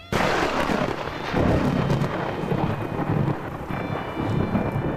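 nature, heavy downpour of rain

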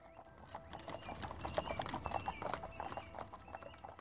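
animal, horse-drawn carriage hooves clip-clopping

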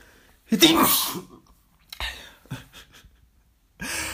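human body sound, sneeze

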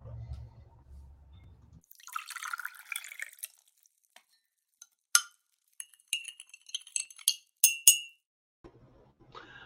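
household object, sipping coffee

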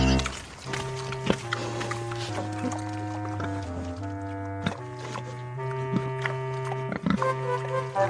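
animal, pigs oinking and grunting

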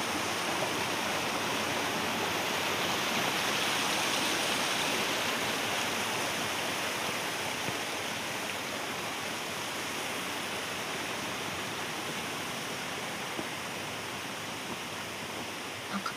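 nature, rushing mountain river

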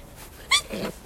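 human body sound, sneeze

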